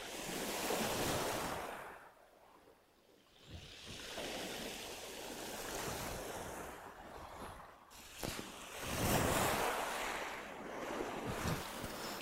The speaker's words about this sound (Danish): Øh, jo, der er en del vind herude, men man står okay i læ. Og der er ikke rigtig nogen bølger.